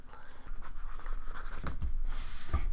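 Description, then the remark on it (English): A pen scratches across paper in short, continuous strokes as someone writes something down to slide across the table, with a few soft thumps against the table and a brief rustle of paper near the end. “Um, I don't want to have it on the podcast, but I'll write it down on a piece of paper and slide it over to you.”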